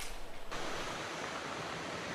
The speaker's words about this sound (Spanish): pues como puedes ver ya aquí en el puerto de Mazatlán ya llegó con fuerza toda el agua que tiene la tormenta tropical Patricia que terminó descendiendo de categoría, pero mira nada más cuánta agua trae.